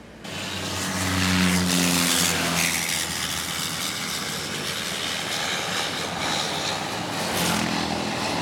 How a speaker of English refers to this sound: So as you can hear, uh, that was, as you could maybe hear, that was a propeller airplane just coming in directly over the head, over uh, over my car, uh, probably just a few meters there's um, the airport here is um, has the beach in one end